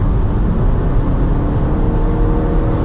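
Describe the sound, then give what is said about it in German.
A steady, loud low engine drone with a deep rumbling hum, holding an even level throughout without voices: a car's artificial Iconic Sounds engine sound, playing in sport mode. “Also man wird bei manchen Modellen ähm, ein Sportmotor-Sound, der künstlich klingt, aber hier stört oder nervt da überhaupt nichts.”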